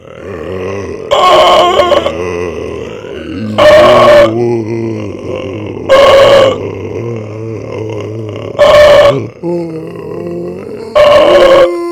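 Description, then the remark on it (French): Deep guttural grunting from the throat, a low continuous rumble broken by five loud, harsh bursts at roughly even intervals, with no words spoken. “on faisait des bruits gutturales avec notre beau”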